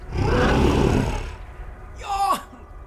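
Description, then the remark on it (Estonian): A deep, rumbling monster roar swells loudly for about a second, fades, then a shorter strained, descending growl-like cry follows, alone with no talking. “peletis lõpetas häälitsemise ning langetas pea.”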